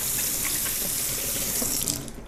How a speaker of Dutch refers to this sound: Ik ga appels wassen.